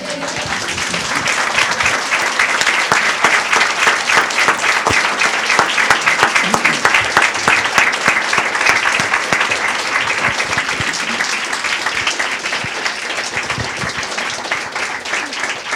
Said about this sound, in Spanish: eso merece que le demos un aplauso al Señor.